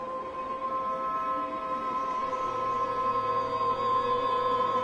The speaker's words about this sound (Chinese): 公寓窗外的景象没有任何变化，地铁走走停停，来来回回